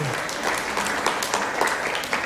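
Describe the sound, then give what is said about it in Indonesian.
A crowd claps steadily in applause for a group of singers, a dense wash of many overlapping hand claps at a fairly even loudness throughout, with no voices standing out. “kasih tepuk tangan dulu nih untuk ….”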